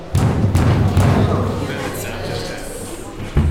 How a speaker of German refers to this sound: Ihre innerlichen Jubelschreie wurden bald von hämmerndem Klopfen und Kratzen unterbrochen.